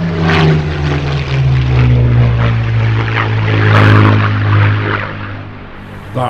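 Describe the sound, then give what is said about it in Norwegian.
A deep, throaty Merlin piston engine of a Spitfire aircraft drones steadily and loudly, its low harmonic growl holding constant with a slight rise in intensity midway. “Altså, jeg, jeg på en måte stivner til når jeg hører lyden av en Merlin-motor, altså fra en Spitfire.”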